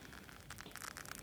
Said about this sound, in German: Hier, ich halte mal eine Flasche ans Mikro. Das knistert.